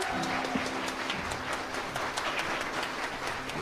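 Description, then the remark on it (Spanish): An audience applauds a band steadily for a few seconds, a dense wash of many hands clapping at an even loudness, with no one speaking over it. “van a cantar nuevamente, así es que un aplauso para ellos”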